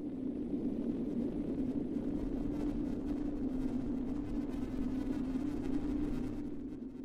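Live experimental voice and noise music recorded at Experimentag in Berlin: a loud, steady droning hum sits over a dense wash of rumbling, crackling noise that continues unbroken throughout, easing slightly at the very end.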